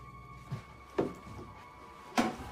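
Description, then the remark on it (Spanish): A wooden trapdoor in the dusty floor of a barn, leading to an underground chamber, is handled and opened: three separate knocks and thunks, the last the loudest, over a quiet faint hum with no voices. “En el piso polvoriento, uno de los agentes notó unas huellas que conducían a una puerta en el piso.”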